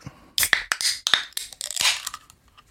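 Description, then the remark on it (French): A can of European beer being opened: a cluster of sharp metallic cracks and clicks followed by a short, bright fizzing hiss, fairly loud and crisp, with no one talking. “C'est bien évidemment des canettes.”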